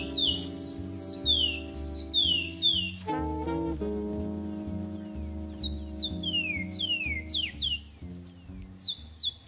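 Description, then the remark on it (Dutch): A Surinamese songbird sings a steady run of quick, high, downward-sweeping chirps in short bursts, over a continuous layer of low sustained musical tones with no talking. “Ik denk dat dit een Surinaamse zangvogel is.”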